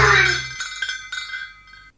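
Dishes clink together as they're loaded into a dishwasher: a loud opening clatter, then a few lighter knocks and chinks, with a bright ringing tone lingering and fading. No one speaks.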